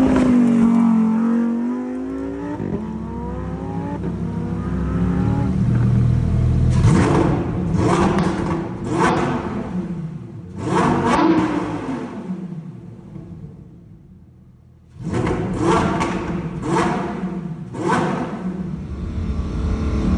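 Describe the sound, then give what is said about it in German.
A loud V10 car engine revs hard, rising from a low rumble into repeated high-pitched bursts with short gaps between them, alone with no voices. “alle Aufmerksamkeit wird absorbiert von diesem V10. Der Sound ist natürlich infernalisch einfach.”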